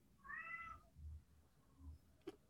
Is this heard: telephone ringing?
no